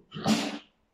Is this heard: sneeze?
yes